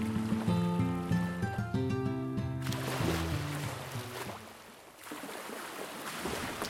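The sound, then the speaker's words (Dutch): A few seconds of soft tonal music give way to water lapping and sloshing against the dark wooden hull of a brand-new 46-metre ship, the Batavia, at anchor off Texel in October 1628, a steady washing sound with gentle surges and no voices. “Water klotst tegen het donkere hout van het spiksplinternieuwe 46 meter lange schip, de Batavia.”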